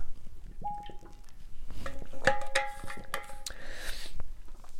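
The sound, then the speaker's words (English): A glass rings softly as it's picked up, followed by quiet wet slurps and a swallow while someone sips water. No one speaks. “Let me just take a sip of my water here.”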